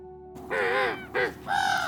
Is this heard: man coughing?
no